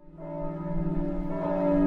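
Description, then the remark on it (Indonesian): A large temple bell is rung as hard as possible as an alarm signalling a great disaster, ringing loudly with a deep, sustained metallic tone, its hum swelling and growing louder across the short stretch, heard alone without any voices. “Bel besar di kuil tujuh dewa itu dibunyikan sekencang-kencangnya menandakan suatu bencana besar yang telah terjadi di kerajaan Griffin.”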